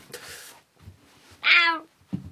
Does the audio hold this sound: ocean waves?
no